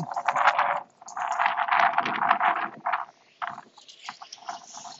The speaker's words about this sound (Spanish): Y hoy no llueve, pero hace viento